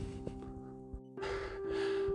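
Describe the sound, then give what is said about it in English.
Heavy panting after a run of about 1500 metres ending in a 200 metre sprint: a couple of short gasps, then loud, rough breaths rushing in and out over a faint steady hum, with no talking. “That was my run.”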